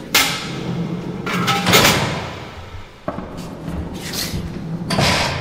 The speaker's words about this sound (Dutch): We gaan nu weer door eh, de zware deuren naar buiten. Het is echt, het is een beest. Het is, een, een het is verschrikkelijk.